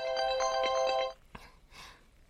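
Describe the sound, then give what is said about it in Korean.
A phone ringtone plays a bright, repeating melodic pattern of steady electronic tones for about a second, then cuts off, leaving a faint click and quiet rustling. “너, 너 전화가 네 등짝 살렸다.”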